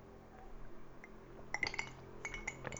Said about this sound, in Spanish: Yo la verdad es que nunca la, un, momento, voy a beber un poco de Coca-Cola.